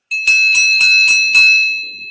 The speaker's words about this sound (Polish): mam tutaj dzwonek